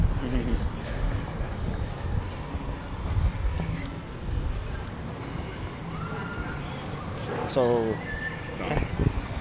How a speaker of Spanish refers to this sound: Eh, ya empezó a, empezó a sentir el ruido. Ah, estamos sintiendo el ruido, ya vemos la multitud.